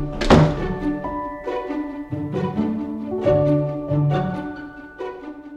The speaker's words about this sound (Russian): Стараясь сдерживать улыбку, ты закрываешь за ним дверь.